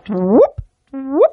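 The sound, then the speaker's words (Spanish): A voice imitates the chirp of gravitational waves transformed into sound: two fairly loud whooping sweeps that climb in pitch, separated by a short pause and a soft low thump. “acuérdate que cuando hay ondas gravitatorias, el, si las transformas en sonido, esto suena como...”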